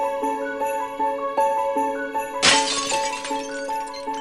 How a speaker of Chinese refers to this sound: 屋外传来了一阵玻璃破碎的声音